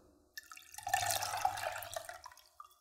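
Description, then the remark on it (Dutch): A lukewarm mixture of egg, sugar, cocoa, cornstarch and milk is poured back into a small pan of milk. The steady trickling pour swells after a soft start, holds for about two seconds, then tapers off. No one speaks. “Nou, als ik dan uiteindelijk een lauwwarm mengsel heb gekregen, dan giet ik dat terug”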